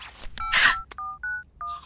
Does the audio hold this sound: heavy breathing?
no